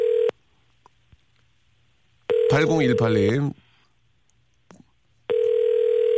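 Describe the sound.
The ringback tone of an outgoing phone call to a woman listener sounds in steady, mid-pitched electronic bursts about a second long, separated by pauses of roughly two seconds, while a man briefly talks over one burst.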